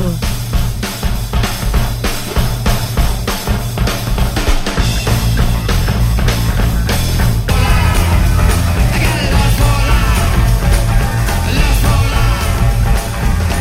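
A loud rock song plays up close, with a driving, steady drumbeat and heavy bass. The full band grows denser partway through, and no one talks over it.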